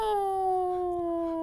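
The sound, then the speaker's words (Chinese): A voice imitates the pet cat Fanfan with one long, drawn-out meow, a steady, fairly loud tone that sags slightly in pitch as it stretches across about a second and a half, with no other sounds. “他的猫感觉就是， 哎不，而且他 养的很好， 他还会拉长音，那种喵”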